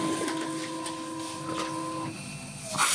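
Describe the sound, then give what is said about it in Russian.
A printer runs through a print job with a steady mechanical whir and sustained tonal hum, shifting pitch partway through and ending in a brief louder burst of noise as paper feeds. “Кто-то, кто-то отправил что-то на печать.”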